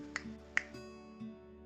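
Two crisp, sharp finger snaps about half a second apart, followed by a low steady hum in the background with no voices.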